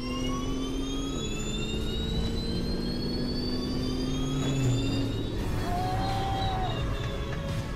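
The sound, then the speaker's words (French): A four-motor electric race car accelerates hard in a drag race, its high-pitched motor whine gliding over a steady roar of rushing noise, loud and continuous for several seconds with no voices. “Après de multiples tentatives, il a réussi à franchir la barre des 210 km/h mais encore, le bolide doté de quatre moteurs électriques s'est payé le luxe de battre une GT2 RS lors d'une improbable drag race.”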